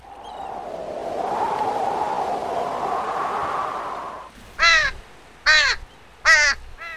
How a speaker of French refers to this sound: Les mouettes effectuent un balai dans le ciel.